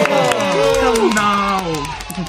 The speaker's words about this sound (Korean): 박수!